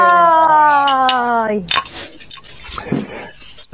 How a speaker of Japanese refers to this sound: じゃあ3人で乾杯しましょう。乾杯乾杯